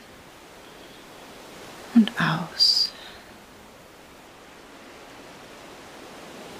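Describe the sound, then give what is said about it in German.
A steady, soft wash of ocean surf rolls on throughout, even and continuous, while a voice briefly speaks a couple of words near the middle. “Genieße das weite Meer vor dir.”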